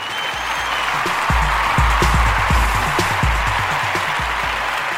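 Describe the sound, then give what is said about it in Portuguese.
A burst of applause for the program's listener-sponsors, steady and fairly loud, with many overlapping hand claps filling the whole stretch and low thumps scattered underneath, no voices present. “Salva de palmas para todos os nossos padrinhos.”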